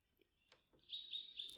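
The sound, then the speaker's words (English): Birds chirp in a forest in thin, high trills, with a few soft scattered calls first and then a brighter, steady run of tweeting. The sound is fairly quiet, with no voices. “Listen once again to the chirping of the birds that accompanies you.”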